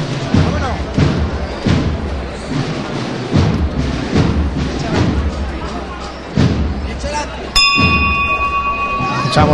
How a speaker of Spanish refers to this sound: el golpe de campana tan particular de los pasos de la Hermandad de la Clemencia. Aquí no hay llamador, aquí hay campana, eso sí que es muy de antaño.